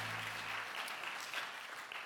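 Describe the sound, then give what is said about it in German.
Steady applause from a crowd for André, a dense wash of many hands clapping at an even, sustained level with no talking over it, after a low hum fades out in the first moment. “Gebt mal André einen fetten Applaus.”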